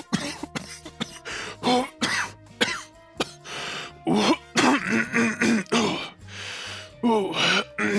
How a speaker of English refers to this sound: He begins to rub it, and our good friend Hashman appears in a puff of smoke. He coughs for about 15 seconds straight.